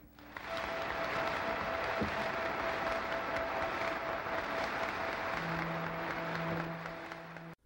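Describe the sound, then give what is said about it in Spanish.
Representatives in a legislative chamber stand and applaud a man who accepted responsibility for government decisions, a dense wash of clapping that stays loud and even for several seconds before tapering off at the end, with no voices rising above it. “No mames que el vato aceptó que era responsable de los hechos y se pararon a aplaudirle.”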